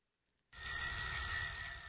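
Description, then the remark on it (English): Dan's alarm clock goes off first thing in the morning and he wakes up: after a half-second of silence, a loud, shrill, continuous metallic bell rattle that holds steady to the end, with no voices. “Dan's alarm clock rings, and he wakes up.”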